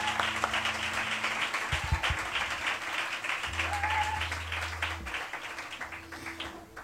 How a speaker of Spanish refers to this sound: Por eso, público de Café La Palma, recibimos con el mejor de los aplausos a Paco Neumann.